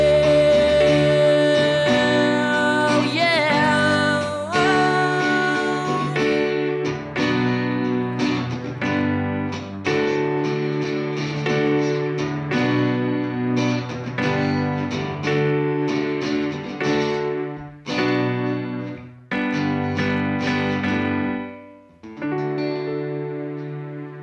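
A South Korean rock band plays a cover song with loud, distorted electric guitars, driving bass and steady drums, the full mix sustained throughout with brief dips between chord hits.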